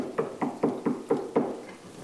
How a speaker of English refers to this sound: One of the roughest times I ever went through in my life as a pastor of this church Somebody knocked on my door.